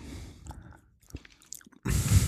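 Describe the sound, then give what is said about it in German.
Soft chewing of a very firm, matte, sour gummy candy: irregular wet squishes and small clicks from the mouth, then a louder, rustling burst of noise at the end. No one speaks. “Ich probiere jetzt auch mal eins.”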